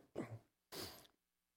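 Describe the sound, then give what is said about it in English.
A speaker at a microphone clears their throat in two short, rough bursts separated by a brief pause, fairly quiet, with no talking around it. “And make sure I turn off the mic before I have to cough or clear my throat.”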